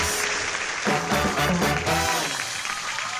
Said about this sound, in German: Ah, das ist immer schon so schön, wenn man schon mit so einem, mit so einem riesen Applaus anfängt, ne?